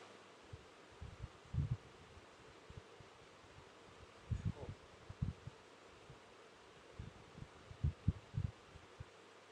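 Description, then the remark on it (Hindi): A steady, even whoosh of an air conditioner and fan runs throughout during a pause in a spoken discourse, with no one talking, broken by scattered soft low thumps. “जैसे हम बोलते हैं तब आप हमको सुन रहे हो और जब हम बीच में चुप हो जाते हैं तो ये एसी की आवाज़ फैन की आवाज़ ये भी सुनते हो दोनों का हम पर कोई प्रभाव नहीं”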